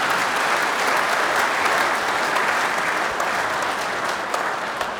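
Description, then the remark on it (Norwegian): A studio audience applauds steadily, dense overlapping clapping that holds at a fairly loud, even level for several seconds before easing slightly at the end. “De vil, de, jeg vil ha sånn applaus når vi sier hei og hjertelig velkommen til Mammas hjerte-podkast.”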